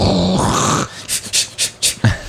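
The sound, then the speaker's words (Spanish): A man's voice mimics a harsh, noisy din, then lets out four or five short, strained, breathy bursts in a rough rhythm, imitating himself trying to shout over the noise of a standing crowd below while performing on a stage above a bar in a casino. “Eso yo intentando gritar para pasar la barrera del ruido de abajo”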